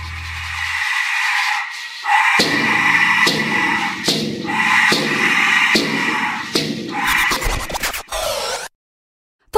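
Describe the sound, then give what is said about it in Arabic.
Loud, harsh, screeching shrieks from Aztec skull-shaped death whistles blown together, swelling in a series of overlapping rasping blasts with a noisy, scream-like tone, then breaking into rapid stutters before cutting off abruptly. “شعوب الأستك بالأمريكيتين كانت تستخدم آلات نفخية شكلها مثل الجمجمة بينفخ فيها آلاف الجنود مع بعض عشان يطلع الصوت قوي وعالي كانوا يسموها صراخ ألف جثة يمكن ما وصلت الفكرة قديش الصوت بشع ومخيف صح؟”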